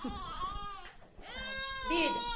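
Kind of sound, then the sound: human body sound, small child crying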